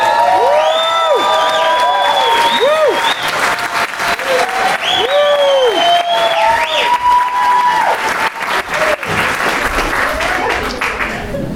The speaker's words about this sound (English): Can we get a huge round of applause?